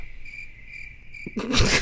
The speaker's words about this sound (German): Ich füge jetzt Grillenzirpen ein und werde mich nicht weiter dazu äußern.